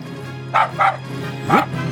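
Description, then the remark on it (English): Three short, sharp yips, two close together and a third after a pause, ending on an upward-sliding cry, a voice mimicking a coyote over a steady low hum. “Only one sound would scare this wily chihuahua. Coyote.”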